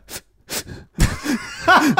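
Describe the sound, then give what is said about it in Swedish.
A voice imitates the sob of someone trying to hold back tears: two quick, sharp breathy inhales, followed by a shaky, whimpering voiced catch of breath. “det är när man så här andas snabbt in. det var alltid det som avslöjade en, att man bölade”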